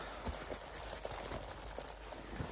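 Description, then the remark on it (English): Leather jacket buckles jingle softly amid a steady rustling and creaking of leather, with small scattered metallic clicks and no voices. “Do you like the sound of leather jackets, like the buckles and stuff?”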